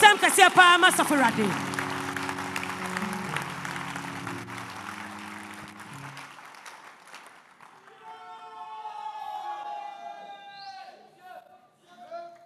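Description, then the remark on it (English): An audience claps their hands for the Lord, loudly for several seconds over sustained keyboard chords, the applause thinning out until it fades, after which a single voice carries on alone. “Clap your hands for the Lord, somebody.”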